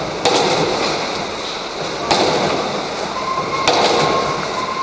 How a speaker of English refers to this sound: Bright silver carcasses drop off the conveyor belt.